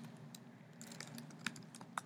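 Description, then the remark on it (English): Quiet clicks from a computer keyboard and mouse as someone pulls up a web page in a browser, a few sharp taps scattered irregularly over a steady low background hum, with no one talking. “Um clicking on it right now.”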